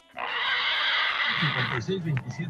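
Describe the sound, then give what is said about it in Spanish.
A person in Santa Cruz, Jocotlán, Oaxaca loudly imitates a pig with a long, harsh squealing cry lasting over a second, then breaks off into short voiced sounds. “Un saludo para mi papá y unas como puerco para él por puro gusto.”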